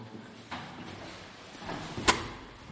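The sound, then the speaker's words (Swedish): One of two large hospital doors, leading to rooms 1 to 14, is pushed open with a low creak and shuffling, ending in one sharp clunk of the latch or handle. “öppnar dörren till oss här och vi går in här nu.”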